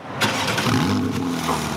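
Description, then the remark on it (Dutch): A Porsche 911 Carrera S engine cranks and fires up with a sudden loud burst, then settles into a steady, throaty rumble. “We hebben trouwens ook eh, nu echt het geluid gevonden van de auto waarmee je bent gekomen.”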